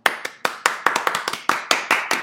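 Applause from an audience of sharp, separate claps, about a dozen in quick, uneven succession, fairly loud, with no voices over them.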